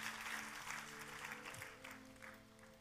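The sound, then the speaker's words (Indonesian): Enthusiastic applause for God from a church audience, dense steady clapping that stays loud throughout, with a low sustained musical hum underneath and no voices speaking. “Ayo buat Tuhan kita kasih tepuk tangan yang paling meriah sekali lagi.”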